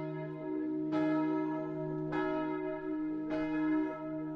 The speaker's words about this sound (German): Was ihr hört, ist das Mittagsgeläut der Pfarrkirche.